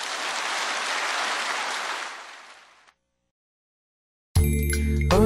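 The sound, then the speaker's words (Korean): A church audience claps steadily in a dense wash of applause of thanks to God that fades away after about three seconds; a short silence follows, then the bright musical jingle of CGM TV begins. “우리 하나님께 감사의 박수 올려드리겠습니다.”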